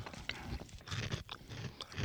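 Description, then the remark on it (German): Crunchy chewing of a dry, crispy potato bhujia snack, with repeated crackling bites in an uneven rhythm and no talking. “Im Abgang, wenn man so ein paar mehr kaut.”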